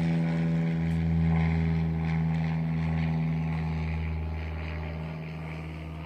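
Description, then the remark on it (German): A low, steady engine drone from an airplane overhead fills the scene, droning with a strong hum and slowly fading over several seconds, with no voices. “ist eine richtig schöne dramatische Pause jetzt mit dem Flugzeug, dass du setzen kannst.”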